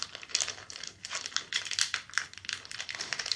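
Continuous crinkling and crackling of a foil card pack being tugged at by someone struggling to open it, with irregular bursts of sharp rustles and no voices.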